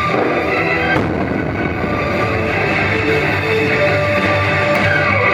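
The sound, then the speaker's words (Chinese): A few sharp gunshot cracks, one near the start and another near the end, punch through a dense, steady wash of loud noise, with rattling bursts blending into the background, during a police hostage-rescue drill: the gunman fires and special-duty officers return fire, giving covering fire as they storm in. “攻坚发起，歹徒开枪，特勤人员随即还击，火力掩护，迅速突入”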